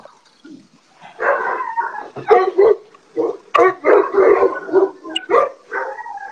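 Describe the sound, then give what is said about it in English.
A large 12-year-old mastiff named Whitey, a breeding dog, barks and bays repeatedly in Riverside County, loud, drawn-out calls mixed with shorter woofs in an uneven series for several seconds, with no talking. “This is one of my older dogs. That's one of my older dogs. This dog is 12 years old.”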